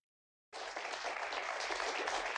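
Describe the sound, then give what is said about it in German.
Loud, sustained applause from a large TV studio audience bursts in after a brief silence, a one-minute standing ovation for the returning presenter: a dense wash of many hands clapping continuously at steady intensity. “In einem grün glänzenden Blazer tritt sie vor ihr Studiopublikum, das sie mit einer einminütigen Standing Ovation empfängt.”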